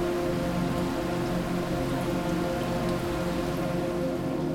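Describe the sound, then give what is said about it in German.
Heavy rain pours down at night during a summer storm in a steady, dense wash, drumming continuously on surfaces, with a faint low rumble underneath and no voices. “Welch nächtlicher Sturm mich heute zu dir gebracht hat. Riesige, unsichtbare Wasserkübel ergießen sich über das ganze Land.”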